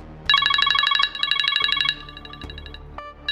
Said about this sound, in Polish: Na dźwięk dzwonka telefonu niemal podskakuje.